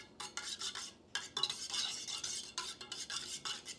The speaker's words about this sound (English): we're making coffee. I don't know how loud this is.